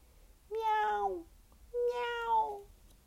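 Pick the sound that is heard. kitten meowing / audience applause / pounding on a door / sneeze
kitten meowing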